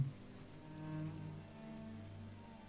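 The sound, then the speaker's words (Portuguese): Steady, quiet rain from a sudden storm falls continuously with a soft hiss, a low droning hum running beneath it and no voices present. “Essa chuva foi meio do nada,”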